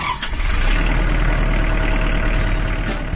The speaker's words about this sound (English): That's the sound of a Kubota Standard L compact tractor, now rolling off the line from Kubota's assembly line in Jefferson, Georgia. With a powerful Kubota diesel engine, standard power steering, ergonomic controls, and a deluxe suspension seat,